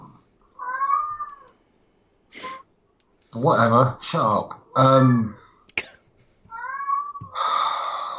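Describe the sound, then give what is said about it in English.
A pet cat in the house meows clearly near the start, then people talk briefly before a second, similar meow near the end, followed by a breathy vocal sound. The meows are moderately loud. “I'm gonna give go. that kitty a pet.”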